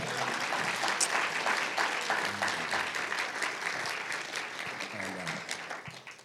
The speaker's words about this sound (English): Let's give the Lord God Almighty a big hand clap, can we?